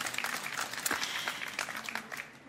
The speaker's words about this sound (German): Bitte Applaus.